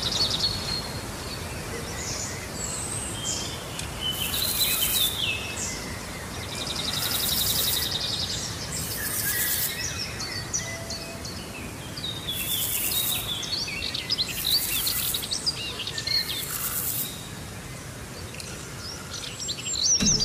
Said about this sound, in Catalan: Vicenç, sentim molts ocellets.